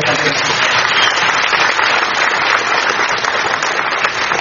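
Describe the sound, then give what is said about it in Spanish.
Sustained audience applause, a dense wash of many hands clapping at a steady, fairly loud level throughout, with no distinct individual claps standing out. “Aplauso por ese”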